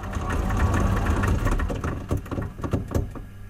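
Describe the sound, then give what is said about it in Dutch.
A wind-up mechanical Bimbobox music box with toy monkeys whirs steadily, then winds down into a loose, uneven rattle of clicks and clacks as the monkeys stop one after another, not all at once, with no voices. “Dat, dat ratelen op het eind. Dat die aapjes niet allemaal tegelijk kunnen stoppen.”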